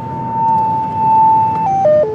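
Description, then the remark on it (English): A gas leak analyzer's alert from the back of a car being driven around, sounding when its sniffing tube catches a whiff of methane or another hazardous gas: a steady electronic tone holds one pitch for about a second and a half, then steps down through three quick lower notes, over a low rumble of road noise. “So, driving around, the tube nose is sniffing, and when it catches a whiff of methane or some other hazardous gas,”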